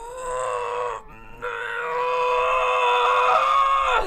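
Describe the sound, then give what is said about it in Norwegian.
A loud voice imitates a long, straining childbirth push grunt, a held low groan that briefly breaks near the start and then bears down steadily for several seconds, with no talking. “Hold den inne. Press den energien ned. Ikke slipp den ut av munnen.”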